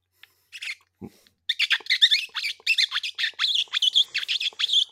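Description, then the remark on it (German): A rapid series of shrill, squeaky squeals made by sucking lips and saliva against the back of a hand, a pained-sounding wailing call mimicking wounded prey to lure a fox, loud with no talking. “Äh, Handrücken mit Lippen und Speichel hat mir mein Vater schon beigebracht. Äh, er gibt irgend so ein Klagelaut, was es auch immer sein soll.”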